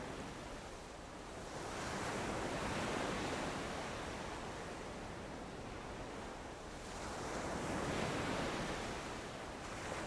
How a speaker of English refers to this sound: waves.